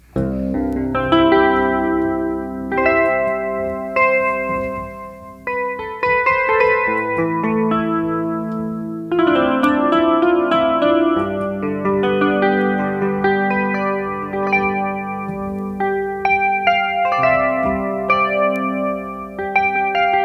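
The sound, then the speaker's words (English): An improvised melody played on a virtual electric instrument set to the Electric Clean sound and controlled with a foot pedal, with effects, sustained harmonic notes and shifting chords. Steady and fairly loud with reverb, no voices. “I just improvised some uh, melody because I don't know what I want to play, so I just played a little bit by I- improvised.”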